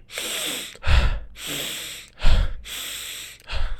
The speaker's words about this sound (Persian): قراره که خیلی شدید و جدی سریع اینطوری نفس بکشیم اینطوری هم هست که دو ثانیه هوا رو میکشیم داخل ریه هامون و یهو ول میکنیم ظرف یک ثانیه و دوباره دو ثانیه یک ثانیه